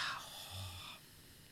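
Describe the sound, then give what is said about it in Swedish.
A single soft, breathy exhale after a breath held for a count of four, airy and steady, that tapers off and fades to quiet after about a second. It is faint, with no talking. “Och så tänker man när man andas ut, slappna”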